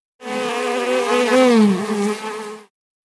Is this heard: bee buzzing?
yes